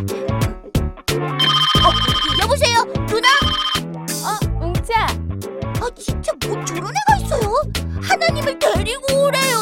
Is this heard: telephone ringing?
yes